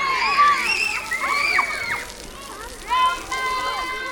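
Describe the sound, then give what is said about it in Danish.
Children shriek and laugh in a busy schoolyard as older children have a water fight. Water splashes and sloshes, and feet run, in a lively jumble of high voices and splashing. “De større børn slås med vand, Vin og latter blander sig med lyden af fødder i løb.”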